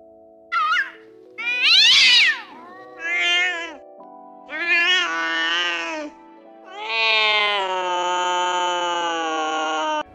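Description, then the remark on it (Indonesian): A cat meows repeatedly and insistently, five drawn-out, wavering cries of rising and falling pitch, the last one long and plaintive, with short pauses between them, as it begs for food. “Kasihan tahu kucingnya. Dia kan cuma mau minta makan.”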